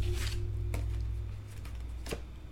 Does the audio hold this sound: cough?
no